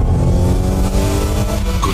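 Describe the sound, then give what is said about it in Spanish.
The engine of a Mazda CX-60 plug-in hybrid SUV revs loudly, a deep steady growl with rising harmonics that holds for a couple of seconds without anyone speaking. “Prepárate para sentir la potencia de sus motores”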